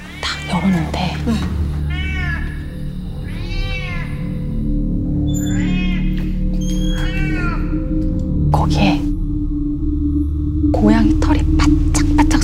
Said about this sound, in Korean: 이 고양이가 송곳니를 내밀고 막 하악질 어느 곳을 주시하면서 하악질 막 하고 있는 거야.